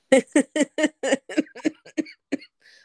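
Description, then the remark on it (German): A rapid fit of coughing, about a dozen short, harsh bursts, loud at first and gradually weakening into fainter, breathier coughs. “ja, der Hustenreiz kommt wieder.”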